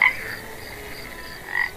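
A toad croaks in a steady, buzzing trill that carries on without pause, moderately loud, swelling slightly toward the end with no voices present.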